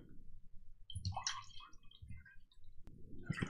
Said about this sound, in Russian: Наливаем себе стопорик прозрачный.